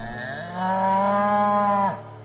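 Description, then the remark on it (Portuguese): A single long, low moo from an ox, loud, holding a steady droning pitch for over a second before dropping off abruptly at the end. “os mesmos homens que estavam cuidando da contagem do povo, trouxeram as suas ofertas a Deus, o Senhor, isto é, seis carroças cobertas e doze bois.”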